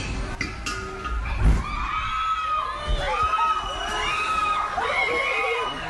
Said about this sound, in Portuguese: Seguem internados no Recife quatro homens vítimas de uma explosão de gás. Dois deles tiveram queimaduras em mais de 80% do corpo. O momento da explosão foi registrado pelos moradores.